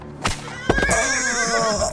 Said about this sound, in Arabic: فلتسبق يا حارس بفرسك السريع